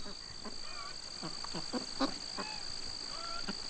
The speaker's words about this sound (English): His fields are buzzing with noises crickets, bees, chickens, ducks. Properly managed, they can all be of benefit to the crops.